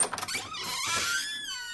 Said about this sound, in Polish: Drzwi e, trzeba otworzyć najpierw.